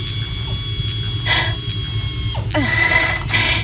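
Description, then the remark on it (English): A breach patch device, held by its handles and placed orange side down over a hull breach with its right thumb trigger kept pressed, seals the leak with bursts of mechanical ratcheting and hissing, repeating over a steady low hum, fairly loud with no voices. “Right thumb trigger starts the patch. Keep it pressed down.”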